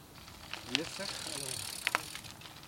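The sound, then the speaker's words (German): A bicycle rolls past amid steady outdoor background noise, with a couple of sharp rattling clicks from the bike and faint, indistinct voices. “Jetzt warte ich auf das Opfer mit Velo, mit Hund.”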